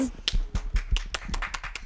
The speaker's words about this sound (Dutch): Klein applaus.